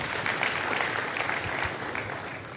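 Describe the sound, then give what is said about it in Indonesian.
A crowd applauds for Jesus, steadily, a dense, even wash of many hands clapping that holds at a fairly constant level for the whole stretch, with no one speaking over it. “Berikan tepuk tangan deh kalau begitu buat Tuhan Yesus.”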